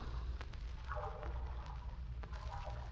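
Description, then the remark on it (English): A female swimmer splashes through the Adriatic Sea, using a combination overhand side stroke and flutter kick, with soft, irregular strokes and occasional sharper splashes over a constant low, rumbling wash of waves, without any voices. “The sound you hear is that of a swimmer in the Adriatic Sea.”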